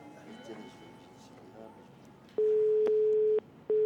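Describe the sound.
A steady electronic telephone ringing tone sounds in loud one-second bursts, one ending and another starting after a short gap, following a stretch of faint background voices and murmur; the ringing stops when the call is answered.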